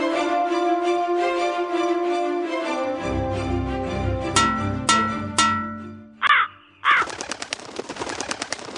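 Two harsh, loud crow caws ring out in quick succession near the end, following sustained tonal music punctuated by sharp percussive hits, with a noisy wash trailing after them.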